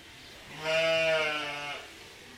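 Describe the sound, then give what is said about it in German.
A single sheep in a sheep barn where the animals are being shorn lets out one drawn-out, wavering bleat lasting about a second, fairly loud, with no talking around it. “Im Schafstall der Schäferin Josephine Heermühlen werden die Tiere geschoren.”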